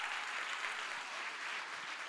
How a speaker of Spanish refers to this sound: Dale un aplauso fuerte al Señor en esta hora.